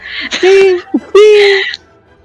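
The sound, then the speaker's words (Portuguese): A voice imitates a metal sword being drawn from its sheath: two loud, ringing vocal bursts, each about half a second long, with a short breathy pause between them. “Não sei fazer barulho de espada, é barulho de ferro.”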